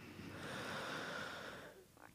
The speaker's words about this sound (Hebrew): נגיד עכשיו אני מרגישה את הנשימה שלי קצת כזה קצרה, mm-hmm. אז אני ממש אה, עושה רגע תחזוקה, אולי כולכם צריכים את זה, את והקהל. שננשום ביחד? כן, ניקח רגע נשימה.